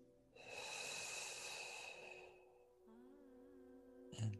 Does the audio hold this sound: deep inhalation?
yes